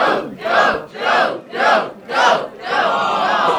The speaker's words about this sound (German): Ohne wirklichen Grund werfen sich die Charaktere in verschiedenen Szenen außerdem einen Football hin und her. Auch hier feuert das Publikum an.